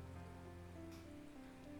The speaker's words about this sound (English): After the puffins come the rains.